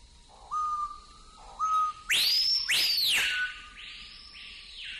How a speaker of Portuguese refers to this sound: Ele chama Cricrió ou Biscateiro. É um passarinho incrível é a marca da Amazônia para mim. O canto dele é incrível, fantástico.